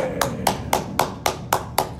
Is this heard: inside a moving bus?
no